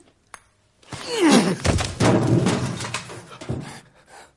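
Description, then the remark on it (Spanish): At night, a lieutenant slides from his bed, grabs a sleeping man and drags him onto the floor with a heavy thud, followed by a few seconds of scuffling and rustling. No one speaks. “El teniente se ha deslizado de su cama y agarrando a Forrest le arrastra al suelo”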